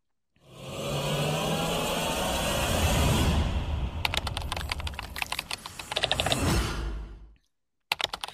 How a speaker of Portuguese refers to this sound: É, então vamos agora chamar a vinheta e vamos para o caso dessa semana.